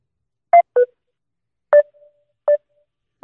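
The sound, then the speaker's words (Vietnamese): Short electronic phone tones beep in an uneven sequence, five brief bursts with pauses between, with no voices: a phone call being redialed that goes unanswered. “Ôi mình đang nói dở thì mạng nhà bạn ấy bị làm sao ấy chẳng nghe được nữa Mình gọi lại lần nữa thì bạn ấy cũng không bắt máy luôn”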